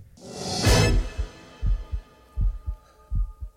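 An instrumental track begins with a bright swelling whoosh, then settles into a steady, loud heartbeat-like pattern of deep double thumps repeating about every three quarters of a second, with no voices.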